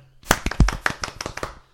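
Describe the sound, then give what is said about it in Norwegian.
A short burst of hand clapping, a dozen or so sharp, irregular claps over under two seconds, moderately loud with no voices, given as a small round of applause to the Norwegian football federation (NFF). “Ja, da gir vi dem til og med en liten applaus.”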